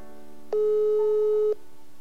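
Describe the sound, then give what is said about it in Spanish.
A single steady electronic phone tone sounds for about a second, clear and fairly loud over faint background hum: an outgoing WhatsApp call ringing on the line. “Voy a llamarlo en este momento a través de WhatsApp”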